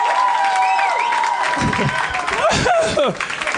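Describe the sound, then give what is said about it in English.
A live audience applauds in a steady, dense wash of clapping that lasts the whole stretch, with voices and whoops rising over the noise. “you guys are applauding inverse show ending dynamics.”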